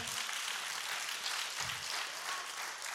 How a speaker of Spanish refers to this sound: Dele fuerte aplauso al Señor.